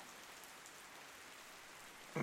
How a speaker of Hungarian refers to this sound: Ez az eső